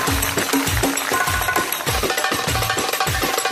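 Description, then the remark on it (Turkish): Dense, steady bumper-to-bumper traffic rumble on a bridge, with deep thuds repeating about twice a second and faint horn-like tones running through it, loud and continuous with no voices. “Tampon tampona giderken köprü trafiği.”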